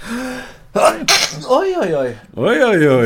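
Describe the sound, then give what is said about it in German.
A sharp sneeze bursts out with a breathy, hissing release, followed right away by a voice speaking a few exclamations. “Gesundheit. Die nachwehen, aber nur einmal.”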